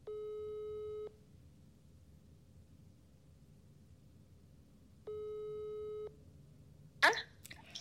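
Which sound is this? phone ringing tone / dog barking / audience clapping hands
phone ringing tone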